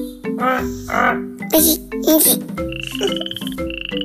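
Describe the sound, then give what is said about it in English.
A frog croaks loudly in a run of deep, throaty croaks, first in separate bursts and then in a quicker rattling series of pulses toward the end. “A frog crawled out of the pond and croaked. How does the frog croak?”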